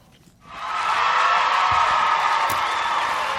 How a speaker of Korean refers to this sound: 아니, 왜 보물소리 들려달라니까 환호를 질러. 아유, 다시 한 번. 예, 오늘 환호성 소리가 보물 소리입니다.